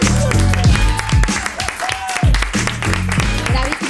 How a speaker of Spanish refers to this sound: Bueno, no, queda mucha pereza, sentaicas, pero con aplauso para ….